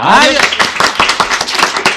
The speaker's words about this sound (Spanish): ¡Bravo! Gracias por este aplauso nada forzado.